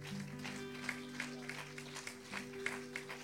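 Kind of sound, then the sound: crowd, audience applause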